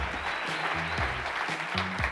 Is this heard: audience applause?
yes